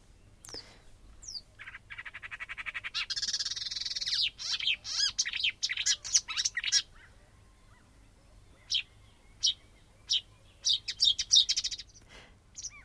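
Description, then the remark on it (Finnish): A marsh warbler sings a fast, varied stream of chirps, trills and mimicked notes, dense and continuous at first, then breaking into short separate bursts. It is clear, with no voices. “kuunneltaisiko sitten tuo luhtakerttonen tähän ikään kuin Joo, laita, laita vertailuksi.”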